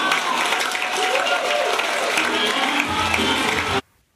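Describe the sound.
A comedy club audience claps and cheers loudly and continuously at the end of a stand-up comedy act, dense and steady applause with excited voices mixed in, then it cuts off abruptly into near silence.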